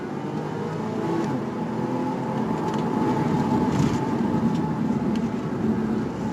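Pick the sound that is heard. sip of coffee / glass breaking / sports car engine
sports car engine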